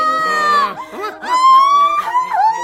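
A woman crying in loud, high-pitched wailing sobs, her voice rising and wavering in long drawn-out cries with a short catch of breath between them, with no other sounds.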